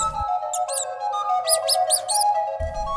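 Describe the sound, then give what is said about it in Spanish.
Thousands of mice filling a town square around a musician, squeaking, with shrill overlapping squeaks in quick clustered bursts over a steady low tonal drone, with no voices. “los lugareños se miraron sin entender nada y más sorprendidos se quedaron cuando la plaza empezó a llenarse de ratones. Miles de ellos rodearon al músico y de manera casi mágica se quedaron pasmados al escuchar el sonido que entraba por sus orejas.”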